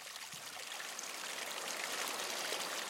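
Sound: small stream flowing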